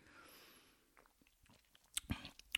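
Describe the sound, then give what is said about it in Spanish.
A quiet sip from a drink: soft wet mouth clicks and lip sounds, then a brief louder slurp and swallow near the end, with no talking. “le doy un traguito aquí.”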